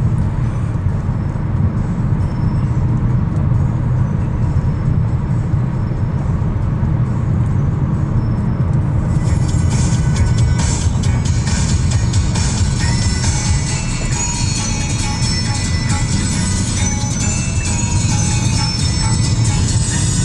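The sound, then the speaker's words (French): Steady, loud roar of fairly fluid road traffic during an Indian summer, heard from inside or beside a moving car. Partway through, the sound turns brighter and more echoing as the car passes beneath a highway interchange, and no one speaks. “Circulation relativement fluide en passant sous l'échangeur de marde en joue.”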